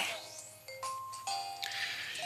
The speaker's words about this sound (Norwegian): Ja, ok, det her er altså da lyd fra Pokémon Black 2. Nytt spill på Nintendo 3DS.